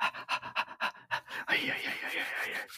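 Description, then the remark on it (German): A person imitates a dog's excited panting: quick, rhythmic huffs, running into a longer, continuous breathy rasp near the end. “Der hat denn den Hund hier in dem Podcast gelassen.”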